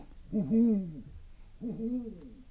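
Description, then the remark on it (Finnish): Two drawn-out, wavering hoots of an owl sound one after the other at moderate volume with a short pause between them. “Hui, pöllö.”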